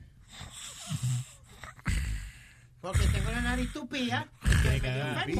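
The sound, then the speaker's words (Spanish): Heavy, close-miked breathing in loud bursts, harsh rasping exhales blasting the microphone, mixed with voiced, groaning tones and snort-like sounds, with no clear words. “Eh, oye, te estás respirando todo el aire, man.”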